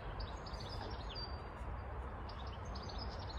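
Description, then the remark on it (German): Birds chirp outdoors in a busy, continuous flurry of small high tweets, fairly faint, over a steady low rumble of ambient outdoor noise. No one speaks. “Mal ein bisschen das Vögelgezwitscher hier aufnehmen.”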